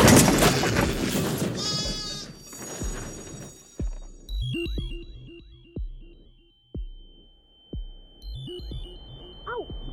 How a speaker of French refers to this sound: C'est pas un troupeau de brebis devant ah!